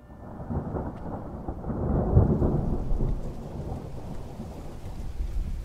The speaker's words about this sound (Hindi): Vista business park के 25वें floor पर कांच की बनी एक लंबी सी विंडो पे इन पे बारिश की बूंदें गिरते हुए मोतियों जैसे लग रहे थे